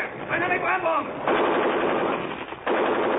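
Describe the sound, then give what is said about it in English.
In a cold, foggy WWII setting by a railroad embankment, rapid machine gun fire rattles in a dense, sustained burst toward approaching Nazi soldiers, briefly cutting out and then resuming loudly; their shouted orders are heard just before the shooting starts. “The fire burst to where the voices came from and dropped to the ground again.”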